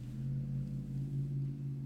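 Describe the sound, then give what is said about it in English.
A big truck passing by outside drones steadily with a deep, harmonic low rumble, holding roughly level throughout without a clear approach or fade. “What was that? It's a truck. Big old.”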